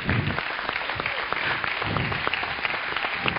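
A crowd applauds steadily for a pastor, a dense wash of overlapping claps holding at an even, fairly loud level throughout with no voices standing out.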